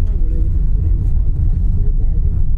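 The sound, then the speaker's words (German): Steady, deep rumble inside a new car with automatic transmission and good suspension as it pulls away and rolls along, engine and road noise filling the cabin with faint muffled voices underneath. “Jetzt fahren wir ab. Auto ist auf jeden Fall neu.”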